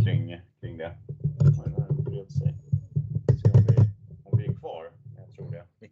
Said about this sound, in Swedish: mikrofonen håller på att ramla ihop här. Ja. Mm. Ordningen återställd. Ja. Kollar så att ljudet är kvar.